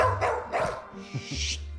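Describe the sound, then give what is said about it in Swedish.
A dog named Dexter barks in a few quick, sharp bursts, fairly loud, with a higher yelping edge on the later ones and a low steady hum underneath. “Skrik inte på mig.”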